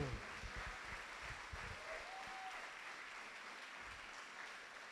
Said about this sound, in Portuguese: Uau, Jesus, dá uma salva de palmas aí, bem forte ao Senhor.